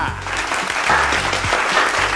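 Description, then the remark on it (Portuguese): A burst of steady applause welcoming one of the founders as he is introduced, many hands clapping in a dense, continuous patter that stays loud and even for about two seconds, with faint voices mixed underneath. “Salva de palmas, coach criacional”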